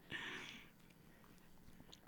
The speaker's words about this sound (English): Just taking a nice big audible sip.